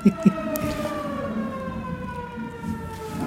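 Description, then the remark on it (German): A siren wails steadily outdoors during a parade, its long sustained tones sliding slowly downward, with two brief knocks at the start and no talking. “Ho ich hoffe, dass das zur Partykuliste gehört und nicht ja, der Ich hoffe, dass es kein, kein Katastrophenalarm ist, ja.”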